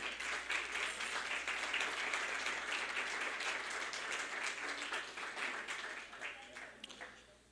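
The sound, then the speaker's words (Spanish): An audience applauding loudly for Christ during a church sermon, a dense, sustained wash of many hands clapping that holds steady for several seconds before tapering off near the end, with some voices mixed in. “Si tú traes tu boleto, dale un aplauso fuerte a Cristo.”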